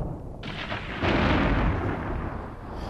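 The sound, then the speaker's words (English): A deep, loud rumble of thunder builds in two surges and rolls on without fading. No voices are heard. “Storm's getting worse.”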